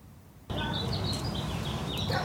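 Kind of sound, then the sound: bird, bird chirping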